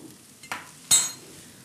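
Two quick scraping strokes of a spoon stirring lentils in a pan, the second louder, over a faint steady sizzle. No one speaks.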